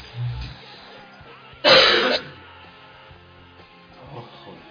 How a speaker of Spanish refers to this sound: Pido disculpas por la tos porque llevo un catarrazo de copola.